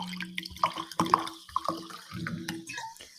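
Sparkling water poured into a glass: a fizzy trickle with bright, plinking drips and bubbly pops rising in pitch over about three seconds, fairly quiet, with no talking.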